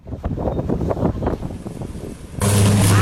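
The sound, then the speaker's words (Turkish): Gusty wind roars for a couple of seconds, then a sudden loud electrical blast erupts into a sustained, harsh buzzing hum as a transformer, struck by an umbrella blown by strong wind, explodes in Alaplı, Zonguldak, Turkey, during a storm with heavy rain; recorded on a mobile phone. “Şiddetli rüzgara kapılan şemsiyenin çarptığı trafo bomba gibi patladı.”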